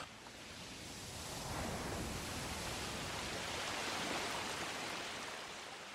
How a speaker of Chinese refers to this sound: 父亲说过，即使倒淌河，最终也会汇入大海。这就是大海的声音吧。